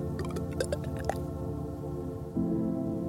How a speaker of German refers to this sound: Dann gieß jetzt einen Schluck O-Saft in den Krug.